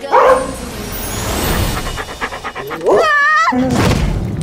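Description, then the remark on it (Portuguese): A small red puppy, Clifford, pants in quick rhythmic breaths, then lets out a high, wavering yelp-like bark followed by another sharp bark. “Na história, a adolescente Emily conhece um criador de animais mágicos e ganha dele um pequeno cachorro vermelho.”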